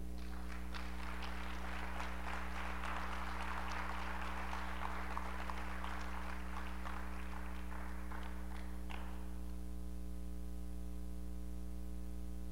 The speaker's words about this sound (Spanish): Si el único que no falla es Dios, Él se merece todo de mí. ¿Alguien puede aplaudir al Señor?